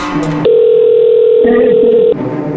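A steady telephone dial tone as a call is being placed holds one unbroken mid-pitched hum for nearly two seconds, loud and even, with faint background voices murmuring underneath before it cuts off abruptly.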